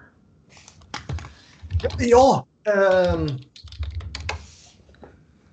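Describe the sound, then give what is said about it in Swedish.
Irregular clatter of keys being tapped on a computer keyboard, in scattered bursts before and after a short spoken exclamation and a hesitant voice. “Knappar inte på några tangentbord här nu.”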